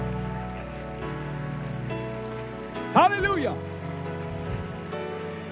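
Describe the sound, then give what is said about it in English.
An audience claps hands in praise of the Lord in a steady, dense wash of applause that runs the whole time, while a man's voice calls out loudly over it partway through. “Give the Lord a hand clap of praise all over the room.”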